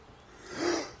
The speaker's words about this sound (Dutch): Ah, ik heb echt hooikoorts. En ik ben echt heel erg lijp aan het gapen.